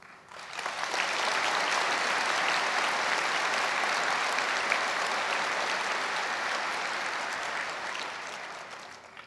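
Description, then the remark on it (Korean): A large audience claps steadily for several seconds in encouragement of South Korea's fire and disaster-prevention personnel, a dense, sustained wash of applause that swells in quickly and fades slightly toward the end, with no voices. “영상물에서 보았듯이 많은 변화와 혁신을 이루어가고 있는 여러분 모두에게 큰 격려의 박수를 드립니다.”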